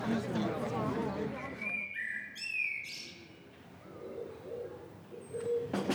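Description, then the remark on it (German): A blackbird sings outdoors: a few clear, fluting whistled phrases over a murmur of background noise, with a brief high chirp near the end. “Ich habe gerade schon eine Amsel aufgenommen da draußen.”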